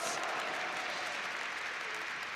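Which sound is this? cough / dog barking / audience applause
audience applause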